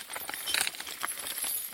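A bullock team on the move, harness chains jangling with a bright metallic clink over soft, irregular hoof thuds, fairly quiet and steady throughout with no voices.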